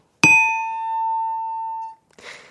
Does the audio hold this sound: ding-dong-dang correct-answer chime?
yes